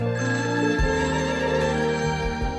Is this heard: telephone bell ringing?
yes